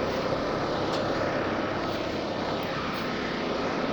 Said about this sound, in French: Démarrage du bateau.